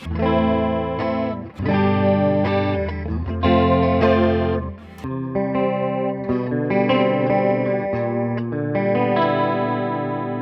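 Electric guitar chords ring out through a shimmering modulation effects pedal, several sustained strums changing every few seconds, loud, with no one talking.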